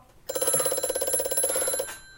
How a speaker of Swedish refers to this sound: Nej, nej, det kommer från telefonen. Vilken jävla telefon? Det måste vara under sängen eller?